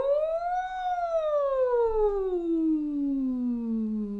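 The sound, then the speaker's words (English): A single voice slides in a siren-like whoo during a vocal breathing warm-up, rising briefly then gliding steadily down in pitch over a few seconds, clear, with no words. “and letting the air just drop in and whoo, letting it siren out.”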